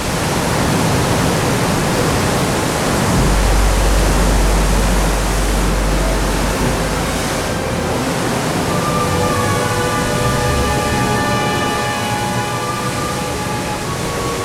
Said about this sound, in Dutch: Er zijn er nogal wat die hebben geprobeerd die stem van de zee te vangen, die altijd hetzelfde en toch altijd anders is.